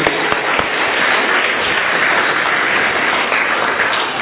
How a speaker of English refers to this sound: Thank you very much. Let's give them a, a huge round of applause. Well done. Thank you.